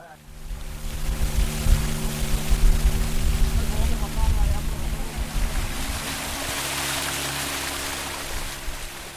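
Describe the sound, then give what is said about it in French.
A small tour boat's engine hums steadily with a low, droning tone while water rushes and splashes continuously beneath it, fairly loud throughout, about a hundred metres from a fisherman's house among wooden houses on stilts. “L'embarcation poursuit son tour.”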